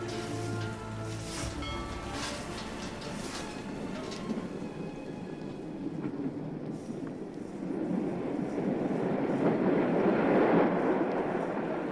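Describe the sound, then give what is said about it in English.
A steam train rumbles steadily as it pulls into Church Stretton station in May 1874, its rolling clatter and hiss swelling louder toward the end, with faint high metallic tones early on. No voices are heard. “Just under a year later, Sunday, the 17th of May 1874, a train pulls into Church Stretton station, carrying home Sarah Duckett.”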